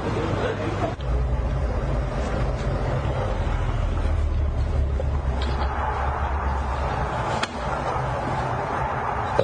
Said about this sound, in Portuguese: eu acho que teve um gol, né? Isso não é grito de gol. Não, isso é grito de o grito de gol, é, é, isso é, é, grito de algum lance perdido. Eu não acredito que seja lance de gol.